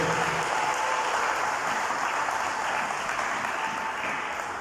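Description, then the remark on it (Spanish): A crowd claps steadily and loudly for several seconds during an evening sermon, applauding Christ Jesus. It is a dense, continuous wash of many hands with no one speaking. “Denle un aplauso a Cristo Jesús, por favor, en esta noche.”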